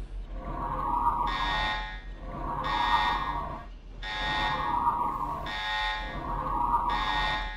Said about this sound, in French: Lorsque les hommes prennent conscience de ce qui est dit dans ce message, il est déjà trop tard, car l'usine est encerclée par les robots et les sirènes sont en train de sonner l'assaut.